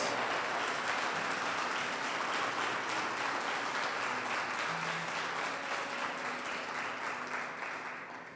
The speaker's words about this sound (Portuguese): Aplauda Ele em nome de Jesus.